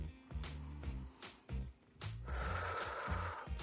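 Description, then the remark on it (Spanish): A slow, deep inhale: a steady airy rush that swells over about a second and a half, heard over soft rhythmic background music with no talking. “Toma una respiración profunda.”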